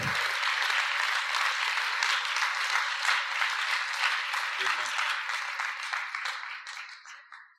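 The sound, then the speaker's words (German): An audience applauds steadily to welcome a guest, a dense wash of many hands clapping at once that holds loud for several seconds before fading out at the end. “Und jetzt geben wir einen ganz großen Applaus.”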